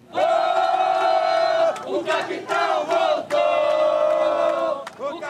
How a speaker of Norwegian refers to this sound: Tilhengerne til Jair Bolsonaro jubler etter valgseieren i oktober.